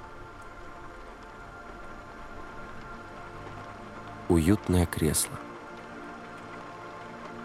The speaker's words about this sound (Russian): За окном идет дождь. Капли сбегают по стеклу.